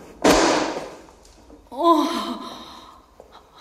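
Inside a church, a book lying beside someone hiding behind the partition at the front pews is knocked to the floor with one sharp, loud thud that fades within a second, followed after a pause by a short voiced gasp.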